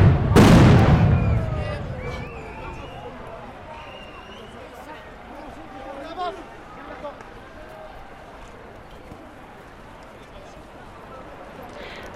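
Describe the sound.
A single sharp, loud GM2L stun grenade blast, rated at 165 decibels at 5 metres, goes off near the start, its roar fading over a couple of seconds into a steady background of voices and outdoor crowd noise.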